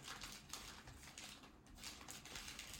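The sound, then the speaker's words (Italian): Continuous rustling and crackling of paper as pages of the newspaper La Stampa are handled and turned to page 25, with brief crisp flicks standing out over about three seconds, and no voices. “prendo la stampa perché c'è Manconi che scrive eh, a pagina 25 della stampa e vi andiamo subito,”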